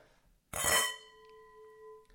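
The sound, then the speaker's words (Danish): Wine glasses holding a 2017 white Burgundy (Bourgogne Blanc) clink together once in a bright toast, followed by a clear ringing tone that lingers and slowly fades over about a second and a half. “Skal vi sige skål? Skal vi skål? skål.”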